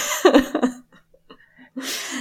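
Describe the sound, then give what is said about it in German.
A person imitates a sneeze with their voice: a drawn-out, voiced wind-up, a brief pause, then a sharp breathy burst. It is moderately loud and has no other talk around it. “Hatschi.”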